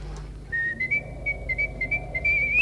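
A person whistles one long, steady note through pursed lips for about two seconds, wavering slightly before sliding upward at the end, with no talking.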